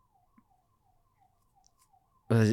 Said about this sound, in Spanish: Una ambulancia aquí en la, la, ciudad.